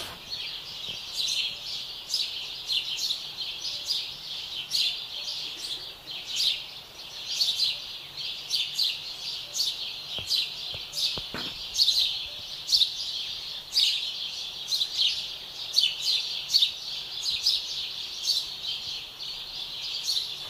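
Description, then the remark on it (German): Dense birdsong fills the air, with many birds chirping and trilling in quick overlapping bursts, steady and moderately loud throughout, with no voices. “wie kommen jetzt eigentlich Vögel mit Lokatfilter?”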